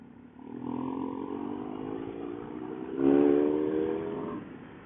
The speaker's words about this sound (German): Ich muss sagen, ähm, dieser Remus, dieser Auspuff, wo dieses Motorrad hier hat, der macht schon auch was her.